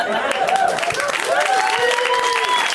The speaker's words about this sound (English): Like you need to clap so that you can relax because I brought up some shit and you want to feel better. So like you're clapping for you. I don't need it.